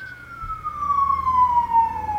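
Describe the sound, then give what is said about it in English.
An emergency vehicle siren wails steadily on a main street in Seattle, its tone sliding slowly downward over a low rumble of traffic, fairly loud and sustained throughout. “Love this whole siren situation going on behind me.”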